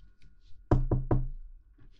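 Three firm knocks on a door in quick succession, each a solid low thud with a short ring-out, standing alone against a quiet background; a sister knocking on her younger brother's door.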